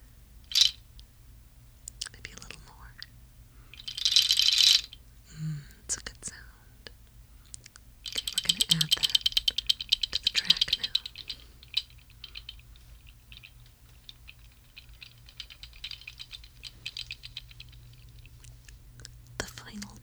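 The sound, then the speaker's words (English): A goat toenail rattle is shaken, first in a brief burst and then in a longer run of dry, dense clicking and clattering that trails off into scattered clicks. “I think we're add some, what are they called? Goat's toes. Charles is going to give a, a little shake”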